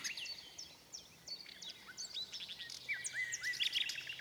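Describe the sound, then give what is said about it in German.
A nightingale sings a fast, varied run of high chirps, whistles and trills, its phrases tumbling over one another, fairly loud against a soft background hush. “Die Nachtigall hielt ihr Versprechen.”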